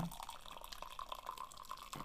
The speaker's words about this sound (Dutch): Even inschenken. Wil jij nog?